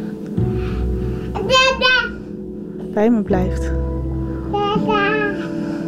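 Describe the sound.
A one-year-old toddler babbles in a few short, high-pitched bursts, squealing and cooing, while an adult woman speaks briefly and a low steady hum runs underneath.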